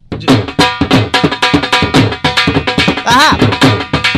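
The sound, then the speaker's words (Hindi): A dhol drum beats loud in a steady, unhurried rhythm, with repeated booming strikes and a brief melodic tone rising over the drumming near the end. A dhol player is demonstrating the slow rhythm over a call for a wedding booking. “आपको थोड़ा सा हमारा बता देता हूँ किस प्रकार का ढोल बजता है ये थोड़ा स्लो वाला सुना दे एक बार”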